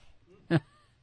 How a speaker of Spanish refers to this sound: está respirando, está hueliendo, está hueliendo el micrófono.